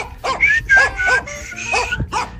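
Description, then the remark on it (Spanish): A dog barks about six times in a quick, uneven series of short, high yapping barks, fairly loud, with no talking. “Andaba por ahí en Chihuahua y iba caminando su perro dálmata, muy, muy fancy él acá.”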